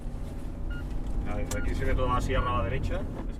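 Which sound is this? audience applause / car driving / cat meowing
car driving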